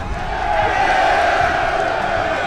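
A large crowd of prisoners roars and cheers continuously as they rush to the prison yard to watch a duel, a dense wall of overlapping voices and shouts holding steady at a loud level throughout.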